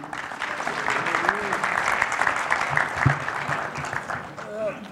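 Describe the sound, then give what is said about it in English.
Sustained crowd applause fills the space with dense, steady clapping for several seconds, with a few voices and cheers rising faintly through it. “All right, give it up”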